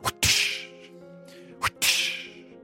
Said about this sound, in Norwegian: En pisk. Dere ser denne mannen som da blir pisket med opphovnet fjes, um, slitt um, garb, altså slitt bekledning, um, noen steder er den kuttet opp.